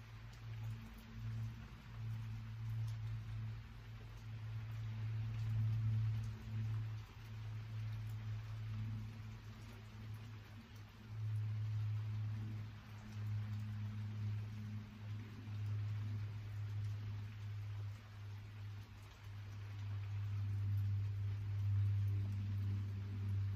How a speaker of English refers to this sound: If another thought comes into your head, label it thinking. come back to the sound of the rain.